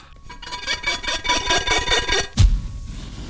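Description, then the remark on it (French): Quick, rhythmic rubbing strokes on a golden metal oil lamp being polished in an office, a steady raspy back-and-forth lasting about two seconds, then a sudden low whooshing thump. “Et il commence à se plastiquer. « Je parle de la lampe.”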